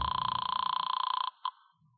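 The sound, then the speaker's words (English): A telephone rings as a call is placed, a rapid, buzzing trill for over a second, then a brief second burst before cutting off. No voices are heard. “I grabbed it and picked up the phone.”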